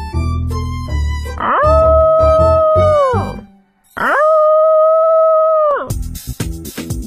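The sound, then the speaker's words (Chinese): A corgi named Moco lets out two long, steady howls that rise, hold a level pitch and then drop away, framed by short, choppy barks at the start and end, loud and with no talking. “但是，自从小区里一只梦想着飞翔的狗狗诞生后，打破了小区平静的生活。”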